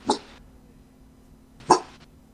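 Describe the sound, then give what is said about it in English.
A dog barks twice, two short sharp yaps about a second and a half apart, with only a faint steady hum in between and no talking. “How do my dog hear my big brother?”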